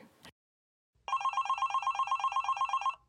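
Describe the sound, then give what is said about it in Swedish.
A telephone rings once, a bright warbling electronic trill lasting about two seconds, fairly loud, following a brief rustle and a moment of silence, with no voices over it. “Men eh, ska jag testa att vara psycho då? Om du ringer mig.”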